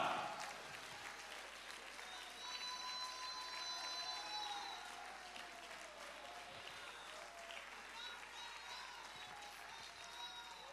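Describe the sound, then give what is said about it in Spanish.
A church audience applauds the Lord in praise steadily for about ten seconds, a dense wash of many hands clapping with scattered cheers and high whoops rising over it, sustained at an even, loud level throughout. “Dale el mejor aplauso y tu mejor alabanza en esta hora.”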